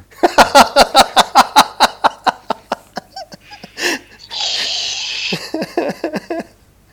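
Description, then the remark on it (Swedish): A whipped cream spray can hisses out a steady pressurized burst lasting about a second, set between stretches of rhythmic, breathy laughter. “Jaha, nej, jag har en flaska sprutgrädde här som jag...”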